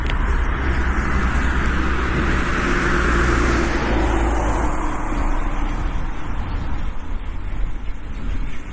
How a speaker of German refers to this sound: Es kommt gerade ein Auto.